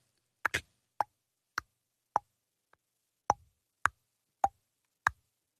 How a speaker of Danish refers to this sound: Og så kan man høre det der store ur på væggen, der siger